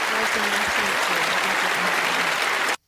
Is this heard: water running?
no